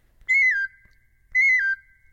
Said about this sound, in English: After sketching a few melodies on the oboe, she threw in the wooden ocarina to add sweet bird like chirps.